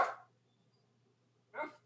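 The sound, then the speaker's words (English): Two separate dog barks, one at the start and another about a second and a half later, with a quiet gap and low steady hum between them; moderately loud. “hold on one sec let me uh let me let me wait till this dog hold on actually”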